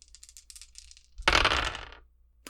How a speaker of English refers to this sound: I'm also going to add a dice, uh, a boost, sorry, under turbo, add a boost which means I'm rolling 3d6.